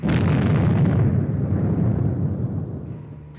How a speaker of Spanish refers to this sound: Cuando de pronto escuchamos una explosión que cimbró la mina, viniéndose toneladas de carga y nos quedamos atrapados.